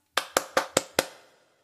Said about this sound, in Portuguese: A casa tinha porta, mas não tinha campainha. Maneco Caneco bateu palmas.